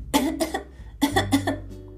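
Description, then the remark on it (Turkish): A person coughs about four times in two quick pairs separated by a brief pause, fairly loud, with no talking around them. “Kötülük düşünmeden bu kadar safça bir yalan söylemeye hazırlanırken yakalanınca içinden üzülmüş, iki üç kez öksürüp küçük prensi haksız göstermek için şöyle demişti.”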